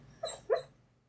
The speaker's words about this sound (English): How we doing? He's dreaming. I heard a weird dog noise. Yeah, he's dreaming.